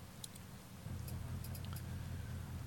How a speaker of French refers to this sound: Là, normalement, vous avez le son euh, du jeu. là, vous avez de la pluie, hein, donc de toute façon, voilà.